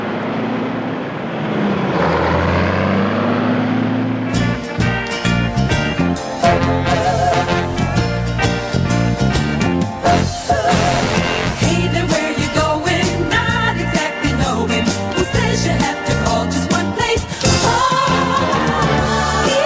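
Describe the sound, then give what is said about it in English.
The opening theme of the TV series BJ and the Bear (1978–81): a few seconds of a sustained low, engine-like drone and rising tones, then a loud, driving full-band tune with steady beats that continues to the end, with no talking. “It's called BJ and the Bear, and I'll just play you the intro, but I fucking used to love it.”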